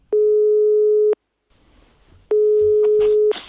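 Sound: telephone ringback tone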